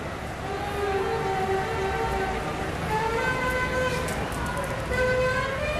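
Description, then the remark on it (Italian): Car horns honk over the steady roar of busy city traffic in Yaoundé, Cameroon, with long sustained blasts overlapping one another and a dense wash of engine noise underneath. “quando sei a Yaoundé è, è, come se eri in inferno proprio di, di, di clacson e bom bom bom ognuno che vuole passare prima dell'altro”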